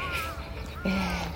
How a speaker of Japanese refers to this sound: カラスの鳴き声ってねほんと全てを消し去るぐらい大きいですよね